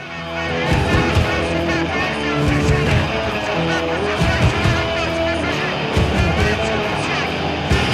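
A loud, energetic rock song plays at full volume, with a driving beat, dense guitars and a shouted vocal filling the whole mix from start to finish, opening a new radio program.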